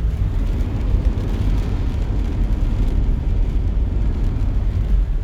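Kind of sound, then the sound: nature, rain falling outside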